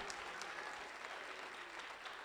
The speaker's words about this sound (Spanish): Fuerte el aplauso al Señor, hermano.